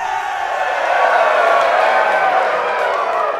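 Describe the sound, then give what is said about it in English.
A large crowd of townsfolk roars and cheers steadily, with scattered clapping mixed into the dense, loud wall of voices that holds strong throughout the few seconds. “The whole crowd erupts in enthusiastic applause.”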